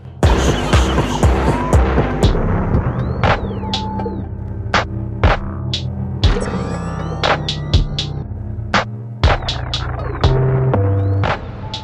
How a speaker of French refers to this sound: La voiture ronronne. Elle est belle comme un lever de soleil.